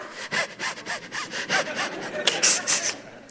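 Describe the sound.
A voice imitates Lamaze-style breathing: a quick series of rhythmic, breathy pants and short gasps, fairly loud, repeating steadily for a few seconds with no words.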